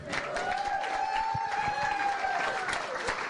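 A crowd applauds steadily for the full few seconds, dense clapping mixed with cheering voices, and a long whistle-like tone rises and falls above the noise.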